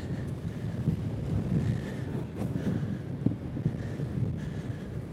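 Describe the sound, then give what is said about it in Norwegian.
Steady headwind buffets the microphone of a runner in a race going uphill, a loud low rumble and rush that swells and dips without pause, with no voices over it. “Jeg skjønner hvis det blåser veldig i mikrofonen.”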